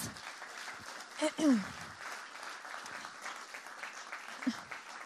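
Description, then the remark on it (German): An audience applauds, a dense, steady patter of many hands clapping for several seconds, with a brief vocal whoop or cheer rising out of it partway through. “Und ja, ein Applaus.”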